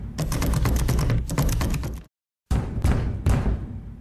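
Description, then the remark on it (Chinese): In a room beneath an old castle, the cartoon cat thief 怪盗喵 slams repeatedly against a locked door, trying to break it open: a rapid run of loud, heavy thuds and rattles that stops briefly, then resumes with several more forceful blows. The sturdy door does not budge. “怪盗喵不断尝试把房门撞开，但门实在是太坚固了，根本动也不动。”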